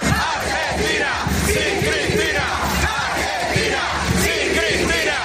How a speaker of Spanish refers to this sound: Sí, celebraban miles de personas, miles de seguidores de Milei el fin del peronismo